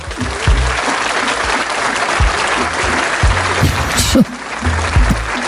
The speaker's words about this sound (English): I, I, I feel like I need a, a round of applause.